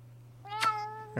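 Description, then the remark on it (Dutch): A single meow from Beer, a cat, drawn out and tonal for about half a second, over a steady low electrical hum, with a brief thump near the end. No one speaks. “Dat is de eerste kat in Nederland.”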